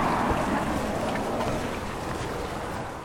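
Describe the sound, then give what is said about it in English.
A steady, continuous wash of road traffic fills the background, heard from a boat dock where about ten airboats are moored; a broad rumbling hiss with no distinct vehicles passing and no voices. “Im Hintergrund kann man noch die Straße hören.”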